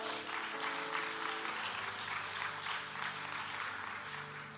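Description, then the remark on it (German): A crowd applauds steadily, a dense wash of clapping that holds at an even, fairly loud level throughout, with a faint low hum beneath it. “Komm, gebt euch mal einen riesigen Applaus, hat wunderbar geklappt.”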